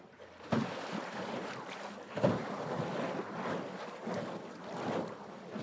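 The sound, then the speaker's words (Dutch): Steady churning and sloshing of water from a pedal boat's paddle wheel as someone pedals, with rhythmic surges roughly every couple of seconds, moderately loud, with some wind noise; the boat is still tied to a rope, on the Leemputten near Groenlo, on a sunny day with blue sky. “Het is alsof je de hele boel aan het leegpompen bent. Ja, zeker. het is een waterfiets, hè?”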